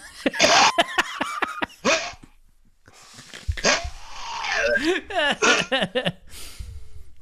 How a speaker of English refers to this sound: Uh, let me just clear my throat.